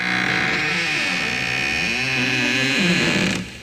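A heavy old door that is hard to close, at Borova Špajza, swings open with a long, loud groaning creak, its pitch wavering and bending over a steady rough rasp for several seconds before it stops abruptly.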